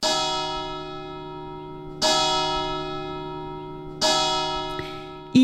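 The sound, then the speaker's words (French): A church bell of nearly 25 kilos, cast by France's youngest bell founder for the church of Lingolsheim, strikes repeatedly at a slow, steady pace about every two seconds, each loud clang leaving a long ringing hum that fades before the next stroke. No voices. “il a réalisé une cloche de près de 25 kilos pour l'église de Lingolsheim”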